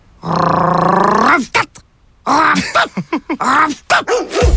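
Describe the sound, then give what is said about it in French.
A dog gives a long, drawn-out vocal bark, then a quick run of short, choppy barks and yips, loud and clear with no other sounds around it. “J'ai rêvé que le chien parlait. Ben voyons. Puis qu'est-ce qu'il disait?”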